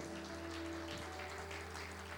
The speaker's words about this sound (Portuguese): E se você crê nisso, dê uma salva de palmas, querido.